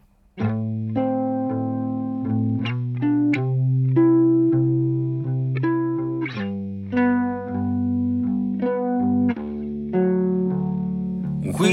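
A full band plays steadily, with thick, effects-laden electric guitar chords and a sustained bass line changing every second or two, forming a dense, loud indie rock groove without vocals.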